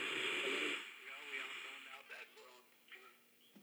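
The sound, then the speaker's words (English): Crackling radio static hisses and warbles as a tuner sweeps across stations, with brief bursts and fragments of distorted signal fading in and out at moderate volume. “Now I got a little tuner on here.”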